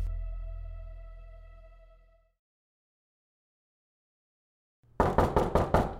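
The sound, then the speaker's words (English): A lingering tone fades into silence, then a quick burst of about five loud, sharp knocks on a door, with no one speaking. “After 5 minutes of knocking, Finch was about to call it She'd given it a good college try.”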